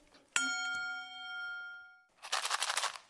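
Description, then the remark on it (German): A metal bowl is struck once and rings out with clear, sustained tones that slowly fade over about two seconds, followed by a burst of loud crinkly rustling. “Hm, also da ist ein Handtuch drin, ein Stück Papier, ein Holzklotz, Metallschale,”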